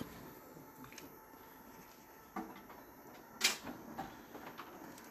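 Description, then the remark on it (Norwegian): Empty bottles and rubber mats rattle and clatter inside a car in a rollover simulator as it turns fully onto its roof, with a few sharp knocks and one louder bang over a low, steady rumble. “Og Der er veltepetter helt på taket, og jeg hører det skrangler i tomflasker og gummimatter inn i bilen.”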